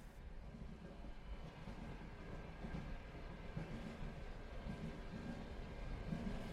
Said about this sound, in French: Quelques secondes plus tard, le train démarre et quitte la gare.